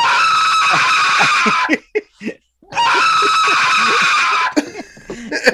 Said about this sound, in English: uh, play the scream. Play the scream.